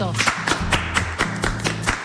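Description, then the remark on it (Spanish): Studio applause for a guest seated at the table, in a steady rhythm: about eight sharp, evenly spaced claps over two seconds, fairly loud, with a low droning tone underneath. “Voy a pedir un aplauso fuerte”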